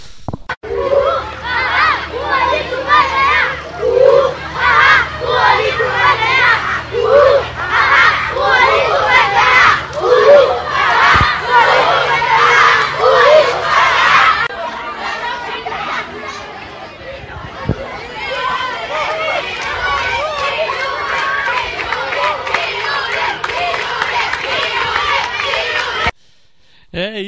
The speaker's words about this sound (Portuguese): Aí, se não me engano, eu gravei o jogo era justamente Olinto contra Patrocínio. Tava uma guerra de torcidas aí no bom sentido, é claro.